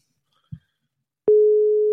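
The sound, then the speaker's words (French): A soft low knock, a brief pause, then a steady telephone ringing tone on an outgoing call starts abruptly and holds at an even pitch, clear, with no voices. “Oh, ça sonne en plus, ça s'entend.”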